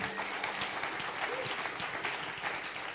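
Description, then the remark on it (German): An audience at a church service applauds God steadily, a dense wash of many hands clapping at once that stays even and sustained throughout, with no voices standing out. “Lass uns Gott nochmal einen riesen Applaus geben.”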